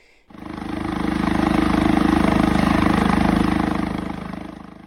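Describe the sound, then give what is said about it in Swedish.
A helicopter hovers at roof height just outside the window of a house on an island, its rotor thumping in a rapid, steady beat over a loud engine roar that starts abruptly and eases slightly near the end, making the whole house shake. No one speaks. “Och det är bara en helikopter som är liksom, alltså i takhöjd utanför vårt hus.”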